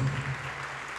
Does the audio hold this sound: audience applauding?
yes